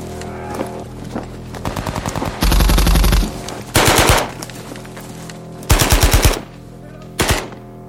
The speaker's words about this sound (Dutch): Tim zit ergens midden in de groep terwijl ze onder vuur worden genomen. Hij probeert meer dekking te zoeken om zo de schoten te ontwijken.